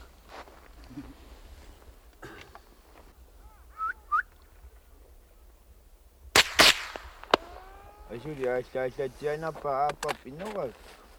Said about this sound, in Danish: Det er umuligt at ramme med den her rifle. Endnu en gang skyder han efter sæl.